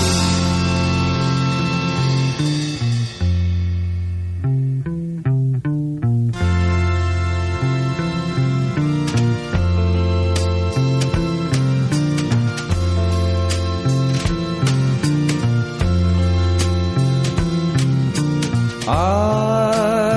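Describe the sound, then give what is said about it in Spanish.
A slow, melancholic psychedelic rock song with blues influences plays loud, with sustained organ-like chords, a steady bass line and regular drum hits running continuously for the whole stretch, with no talking. “Un discazo lleno de rock, psicodelia y blues, canciones llenas de melancolía”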